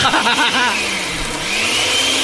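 A blender whirs loudly and steadily, its motor droning with a slight rise in pitch partway through, with no voices over it.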